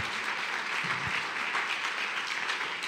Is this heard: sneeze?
no